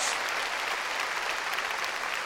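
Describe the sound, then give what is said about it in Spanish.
A church audience claps loudly and steadily in praise of the Lord during a sermon, a dense, continuous wash of applause filling the whole stretch without pause, full, with no voices standing out. “Démosle palmas fuertes a nuestro Señor.”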